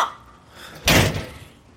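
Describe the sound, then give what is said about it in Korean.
A woman slams a door shut once as she turns away, a loud thud with a brief rattling decay, preceded by quiet and no voices. “소리나게 문을 닫고 돌아섰다.”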